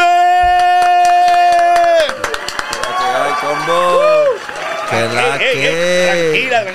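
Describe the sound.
Scattered claps ring out over a sustained musical tone, then swell into loud, dense applause mixed with excited cheering and whooping voices from a close crowd.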